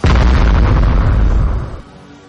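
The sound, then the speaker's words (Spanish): A loud bomb explosion bursts in at once, a deep rumbling roar with crackling debris that holds for over a second before fading into a low, dwindling rumble. “Bomba.”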